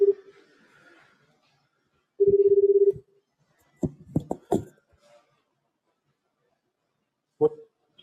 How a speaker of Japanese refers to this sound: ちょっと、ちょっとだけ、電話を個させていただければなと思います。果たして繋がるのか。あ、電話。出て、なってますね。